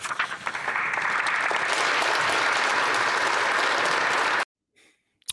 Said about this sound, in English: Oh, good. We all clapped. That's nice.